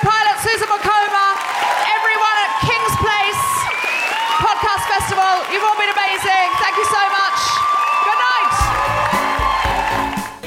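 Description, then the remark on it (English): A live audience bursts into loud, sustained applause mixed with cheers and high whoops, filling about ten seconds before fading at the very end. “Uh, can I say a big round of applause for our incredible guests?”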